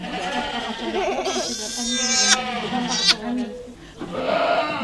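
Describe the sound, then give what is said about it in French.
Several goats bleat loudly and overlapping in a goat barn, their wavering cries stacking up with sharp clatters between them, a busy chorus throughout. “Elles sont en forme les chèvres Oui, oui, très bien, elles sont en forme.”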